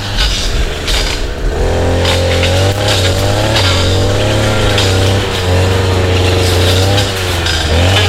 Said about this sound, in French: Son seul euh, débroussailleuse de loin.